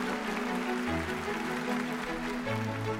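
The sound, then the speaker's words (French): A theatre audience of high nobility applauds the premiere of Beaumarchais' Le Mariage de Figaro at the Théâtre Français on 27 April 1784, a dense, steady wash of clapping holding about three seconds, with sustained musical tones underneath and no one speaking. “La haute noblesse applaudit à tout rompre sa satire la plus féroce.”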